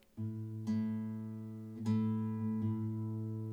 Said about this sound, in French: Voilà, j'ai ma guitare en main et euh, je joue deux cordes, mais c'est la même note. C'est un unisson, c'est un intervalle.